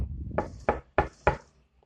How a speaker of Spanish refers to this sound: En un abrir y cerrar de ojos llegó el lobo a casa de la abuela y llamó a la puerta.